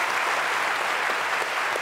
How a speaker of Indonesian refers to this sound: 18 tahun itu tapi tapi luar biasa kuat ya kita kasih tepuk tangan dong untuk teman-teman ini